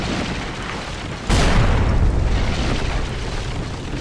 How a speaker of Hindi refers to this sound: एक रात जोरों की बारिश हो रही थी सभी लोग अपने अपने घरों में दुबके हुए थे कि तभी आसमान से एक जोर की बिजली चमकती हुई गांव के एक बड़े से टीले पर आ गिरी उसके गिरते ही जोरदार धमाका हुआ